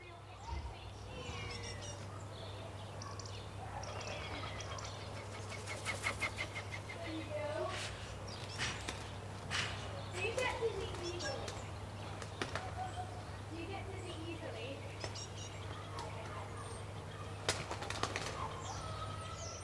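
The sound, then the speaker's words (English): Common garden birds chirp and twitter steadily in a back garden in the UK, recorded at the end of the garden with a Sony PCM D100 handheld recorder, with occasional sharp knocks, faint voices of neighbours' children playing on their trampoline, some gardening sounds, and a low constant hum in the background. “And what you can hear is a mixture of common garden birds, but also neighbours' children playing on their trampoline, and a little bit of gardening sounds mixed in there as well.”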